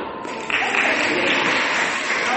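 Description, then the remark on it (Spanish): A crowd at a school bursts into steady applause for a student about to play the drums, dense clapping rising suddenly after a brief moment and holding loud and full throughout, with no talking over it. “Un aplauso para Pablo.”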